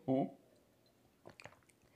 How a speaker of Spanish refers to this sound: justamente aquí me voy a dar el último trago de mi vaso en este caso, que ahora no fue una taza, porque está frío.